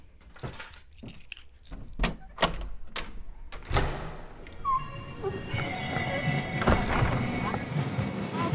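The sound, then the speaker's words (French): Street ambience on the Pont Neuf in central Paris in mild weather: a run of sharp, jangly clicks and clacks gives way to a steady wash of traffic rumble, with faint voices murmuring in the background. “Vous entendez cette douce petite musique Eh bien, c'est parce que nous sommes en plein cœur de Paris. Je suis actuellement sur le Pont Neuf.”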